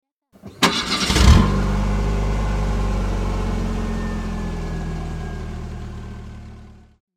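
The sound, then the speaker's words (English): A car engine cranks and catches after a brief burst of noise, then settles into a steady, loud rumble that idles for several seconds before cutting off. “The engine has energy.”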